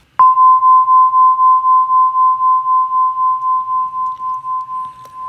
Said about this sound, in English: So this is one of the notes on the crystal harp, and if you heard it pulsing, it was like a wah wah wah wah wah wah mm. wah wah. Now that is equivalent to a theta brainwave state.